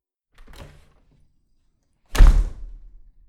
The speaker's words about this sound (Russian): И с этими, переполняющими его чувствами, Виталий резко открыл дверь кабинета.